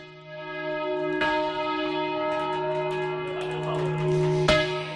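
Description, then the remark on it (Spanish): Church bells rung by hand in the Spanish manual bell-ringing tradition, with rich, sustained overlapping tones, a couple of sharp clangs striking through the steady resonant hum, fairly loud with no voices. “Esta semana la UNESCO ha declarado Patrimonio Inmaterial de la Humanidad el toque manual de campana español.”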